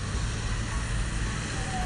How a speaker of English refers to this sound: And here's the bus. I'm going to board the bus today.